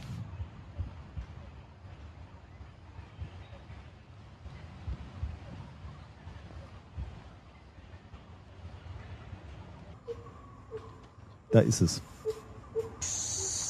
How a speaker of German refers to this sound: Ich mache das hier mal an. Ähm jetzt hörst du erstmal Dschungel.